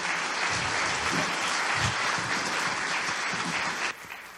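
A large church audience applauds steadily to welcome a guest one morning, a dense wash of many hands clapping that holds at a strong level before dropping off near the end.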